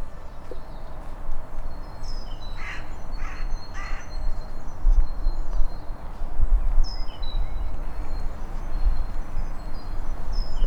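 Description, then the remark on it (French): Outdoor ambience in the grounds of the Vinatier hospital in Lyon, with birds chirping in short high calls and a few crow caws early on, over a steady low rumble with faint, soft footfalls of a person walking; no one speaks. “Ce que vous entendez, ce ne sont pas des oiseaux d'un square quelconque. C'est pas, c'est moi qui marche dans l'enceinte de l'hôpital du Vinati à Lyon.”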